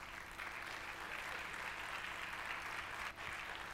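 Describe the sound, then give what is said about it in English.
An audience claps steadily for a young man as he comes up, a dense, even wash of many hands that holds at a constant level throughout, with one brief dip near the end. “So clap for my little brother as he comes.”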